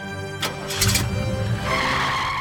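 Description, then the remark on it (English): Car tires screech and skid as an engine revs and the vehicle speeds off, a sharp squeal followed by a sustained roaring whine over about two seconds. “And now that we're done hitting the road, let's get in the car and drive away.”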